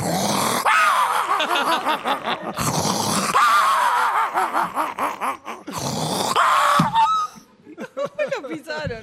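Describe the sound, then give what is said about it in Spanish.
A person imitates a small Pekingese dog that sounds asthmatic, with strained, wheezing, raspy yelps and groans in repeated bursts and laughter-like breathy sounds between. “Perro chico puede ser un, el pequinés, solo más el, sonido.”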